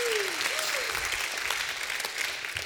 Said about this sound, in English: If you believe that, give God a hand clap and a shout of praise.